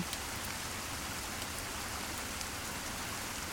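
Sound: rain falling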